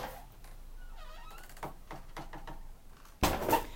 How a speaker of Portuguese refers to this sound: eu tava fechando a porta aqui porque sim, né? Começou uns barulhos aqui.